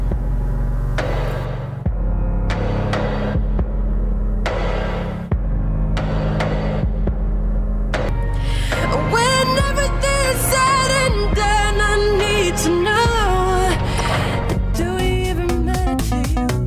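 A recorded pop song plays loudly, opening with a deep sustained bass and rhythmic pulsing hits, then a sung melody enters over bright layered synths and quick stabs near the end.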